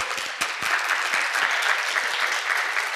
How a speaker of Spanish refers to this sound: Sí, un aplauso para Dios, es para Dios.